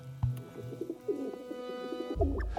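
Pigeons coo in low, throaty, rolling phrases, several soft burbling calls running together, with no talking.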